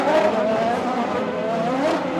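A closely packed field of racing cars, including those of Mika Häkkinen, Alonso and Damon Hill, roars past at full volume, a dense, steady engine blare with a high whining pitch that rises and shifts as the cars go by. No one speaks.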